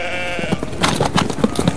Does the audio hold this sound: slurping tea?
no